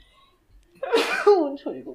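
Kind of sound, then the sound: human body sound, sneeze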